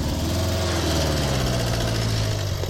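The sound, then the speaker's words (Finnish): Three motorcycle engines run loud, their steady rumble and harmonic whine sliding slightly in pitch as the bikes rev and pull away, leaving to catch an evening ship to Vaasa, with no voices over them. “Näitä kolme moottoripyörää on ollut semmoinen normaali”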